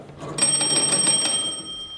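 A crank telephone bell rings after its crank is turned to call a second connected telephone. It is a rapid metallic trill for about a second, bright and fairly loud, then fades out with a lingering ring. No one speaks.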